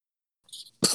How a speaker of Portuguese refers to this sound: Tá bem, eu, eu vou alergia a isso. É alergia. É porque você acha aquele espirro alérgico, aquela. Conhecemos espirros alérgicos.